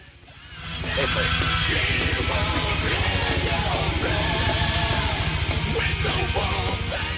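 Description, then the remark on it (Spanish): Loud, dense heavy metal with harsh screamed vocals over distorted guitars and pounding drums, starting quieter and swelling to a full, constant roar after about a second. “Como, como, la música, ¿no? O sea, como lo que estás escuchando.”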